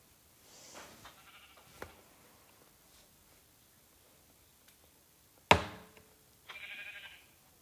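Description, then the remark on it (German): Video game sheep bleat in short, nasal calls, one around the start and another near the end, broken by a sharp loud hit and a few faint taps in between as the player kills a sheep; no one speaks. “Komm, ich töte jetzt ein Schaf.”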